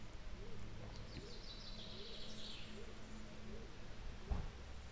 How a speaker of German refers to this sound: Jetzt hört man Vöglein zwitschern, das wird immer mehr.